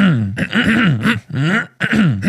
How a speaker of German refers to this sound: Ich hoffe übrigens, dass ihr das Räuspern heute mit sehr gutem Sound hört.